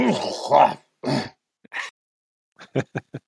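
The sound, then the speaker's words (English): A voice makes a mock sneeze: a couple of harsh, rasping bursts, a brief breathy one, then four quick clipped syllables trailing off, moderately loud with short gaps between. “Gesundheit.”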